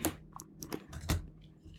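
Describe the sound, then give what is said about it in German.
Crunchy chewing of a piece of brown chocolate with crispy bits inside, a quick series of crisp, irregular crunches and bites over a couple of seconds, with no talking. “In der braunen Schokolade sind auch so Knusperdinger noch drinnen.”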